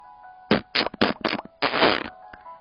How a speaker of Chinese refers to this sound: 嗯，我猜你答对了，Rudy 好像放了个屁。Oh, pardon me，真是抱歉。said Rudy.